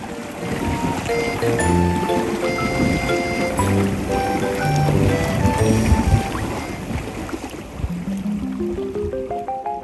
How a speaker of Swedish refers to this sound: Bruset från bogsvallet och... Ja, något det.